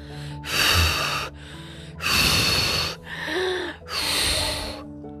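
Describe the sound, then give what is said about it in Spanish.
Four heavy, breathy blowing bursts, each about a second long, with a rough huffing quality; likely a voice imitating the fearsome wolf blowing hard at a brick house without moving a single brick. No speech. “El temible lobo llegó y por más que sopló,”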